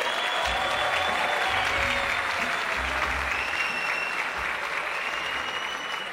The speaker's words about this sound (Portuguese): Eu falei: participa, eu quero uma salva de palmas para André Marinho, senhoras e senhores. Cola aí.